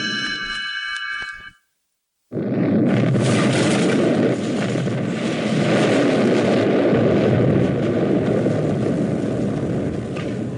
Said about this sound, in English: Explosions rock the Arctic landscape.